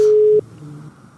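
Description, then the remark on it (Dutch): A telephone ringing tone from an outgoing call: one steady, fairly loud electronic beep for under half a second, then a quieter, lower tone that fades off. “ik heb Dick Matena dus ook even gebeld”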